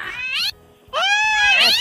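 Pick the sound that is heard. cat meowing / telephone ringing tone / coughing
cat meowing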